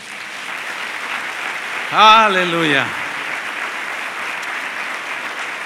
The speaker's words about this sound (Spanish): Dale otro aplauso a Él.